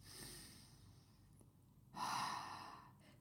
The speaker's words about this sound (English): just go and breathe. Just take some intentional breaths